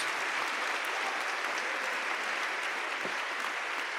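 A church audience claps steadily in sustained applause in praise of the name of Jesus, a dense, even wash of many hands with no pauses, filling the whole stretch without speech over it.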